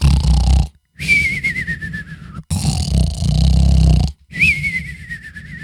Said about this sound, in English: Are you going to keep snoring? Because that's what's happening right now.